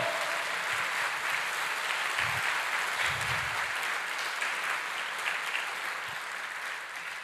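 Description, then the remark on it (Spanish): An audience applauds loudly and steadily for the Lord, a dense wash of many hands clapping together for several seconds, with a few deeper thumps and stray voices mixed in. “Dele fuerte ese aplauso al Señor.”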